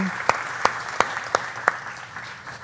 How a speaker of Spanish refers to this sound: Yo creo que merece un este. aplauso la señora.